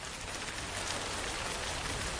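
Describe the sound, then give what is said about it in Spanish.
Steady, dense rain patters against a window, a continuous soft hiss of many drops with no voices. “Ahora relájate con el sonido de esta lluvia en tu ventana.”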